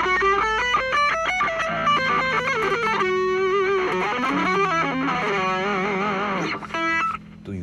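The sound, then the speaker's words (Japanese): A heavily distorted electric guitar plays a quick run of single notes climbing through a scale, loud, with sustained gritty tones and no talking. “スケールの上をなぞるなぞるっていうかまあなぞってますわ私は。”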